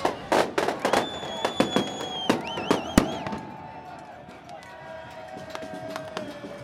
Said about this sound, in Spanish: Pero cuando van arrancando aparecen los weones que están en los otros lados allá y tiran fuegos artificiales a los pacos, ¿cachai?